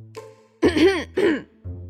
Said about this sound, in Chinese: …的坐起来，清清嗓子